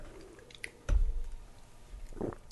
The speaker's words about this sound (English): All right, I got a couple sips here.